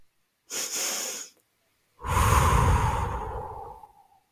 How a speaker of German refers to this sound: in der man zweimal direkt hintereinander durch die Nase einatmet und dann lang durch den Mund wieder aus